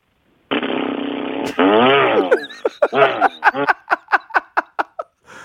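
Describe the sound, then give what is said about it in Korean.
A radio phone-in caller vocally mimics an electric chainsaw as a voice impression: a sustained buzzing drone, then a revving warble, ending in a series of rhythmic sputtering bursts that trail off, loud. “어, 가볍게 그냥 전기톱 소리를 먼저 해보겠습니다.”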